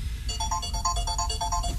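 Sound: mobile phone ringtone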